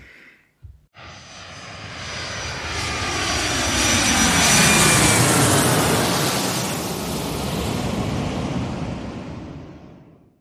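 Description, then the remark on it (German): A small airplane's engine drones steadily as it flies past, swelling louder toward the middle and then slowly fading, with a broad whooshing roar and no voices. “Ja, das kleine Flugzeug, das klingt wie”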